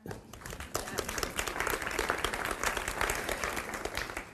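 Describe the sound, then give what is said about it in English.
An audience claps steadily, a dense patter of many hands that swells quickly after a quiet start and holds at a strong, even level throughout. “in a world where I used to think I was smart, but the clapping and reactions in this room over time taught me I wasn't smart.”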